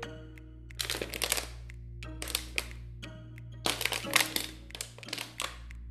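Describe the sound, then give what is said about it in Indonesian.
A person takes a nearby plastic bottle and squeezes and crinkles it by hand to demonstrate a sound, in several bursts of sharp, crackling pops, with brief pauses between each squeeze. “lu tahu itu botol bunyi-bunyi sendiri yakin jadinya suaranya kayak lo ngeremes botol itu coba bentar gue ambil botol nih ada botol di deket gue nah suaranya kayak begini nih”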